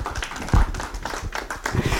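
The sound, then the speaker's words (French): An audience applauds a presenter before a debate, a dense, steady patter of many hands clapping at once that holds at a fairly even level for about two seconds, with no voices over it. “Euh, oui, on peut l'applaudir, si vous voulez.”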